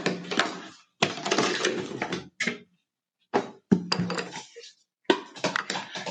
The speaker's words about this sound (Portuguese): E por mais que seja o mesmo material plástico e plástico, o tamanho sempre vai mudar o som, tá? Então aqui, por exemplo, tem um outro exemplo, né, com cano PVC.